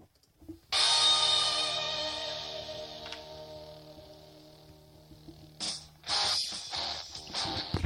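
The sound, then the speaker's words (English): Tinny, thin-sounding music played through headphones held up to a microphone, a loud sustained chord that slowly fades before new bursts of sound kick in near the end. “Here, I'm going to put the headphones on the mic so people can hear it.”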